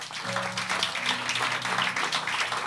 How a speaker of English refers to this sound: Clap for Jesus.